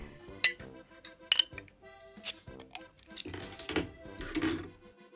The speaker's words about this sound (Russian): надо пиво наливать. Надо раскрыть все пиво.